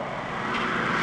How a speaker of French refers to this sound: Alors il y a du bruit parce qu'il y a une, tondeuse qui est en train de, tondre actuellement, donc euh, voilà, pardon pour le bruit, c'est ça que vous entendez au ah, juste.